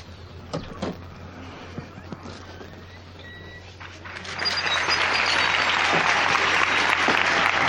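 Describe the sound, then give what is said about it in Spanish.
A few sharp creaks and clicks sound over a low steady hum, then the public gathered in a town square, at a religious brotherhood's ceremony by a church door, bursts into loud, sustained applause that fills the open space and keeps going to the end. “Que siempre es el sonido que precede al estruendo, al aplauso del público congregado, congregado aquí en la plaza.”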